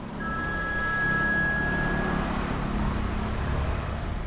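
A mobile phone rings with a steady electronic tone for about two seconds, heard over a constant low rumble of engine and road noise. No one speaks.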